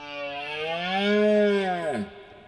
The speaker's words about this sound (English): I recorded the Iberian red deer rutting here in the south of Portugal.